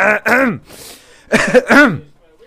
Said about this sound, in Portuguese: Ai, deu-me aqui uma tosse esquisita.